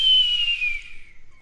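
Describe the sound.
A person imitates a seagull with a single high, whistle-like cry that glides steadily downward in pitch, loud at first and thinning out over about a second and a half, with no talking.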